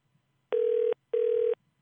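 A telephone ringing tone plays twice, two steady, buzzy mid-pitched bursts of about half a second each with a short pause between. The tones are loud and there is no talking. The call is to a lawyer at the Shiyan Subdistrict judicial office.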